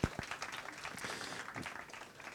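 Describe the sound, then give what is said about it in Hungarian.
Audience applause: a steady wash of many hands clapping at once, dense and crackly, starting with a sharp burst and holding a fairly even level throughout. “Egy tapsot uh, szeretnék kérni Anitának.”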